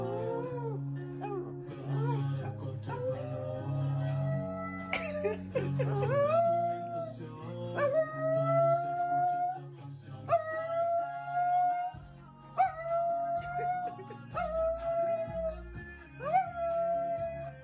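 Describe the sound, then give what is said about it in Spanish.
A small dog howls repeatedly along with a song being played, its long rising and wavering howls coming in regular phrases over a steady instrumental backing with low bass notes. “yo has más dicho aulla porque quítenme esa”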